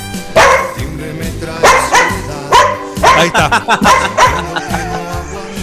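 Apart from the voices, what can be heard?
small dog barking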